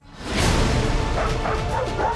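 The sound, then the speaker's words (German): A dog barks several times in quick succession, loud, over a noisy, rushing background with no clear speech. “Ich lerne die Hundesprache. Ich glaube, es mag mich nicht.”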